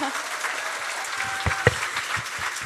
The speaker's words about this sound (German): Applaus erstmal.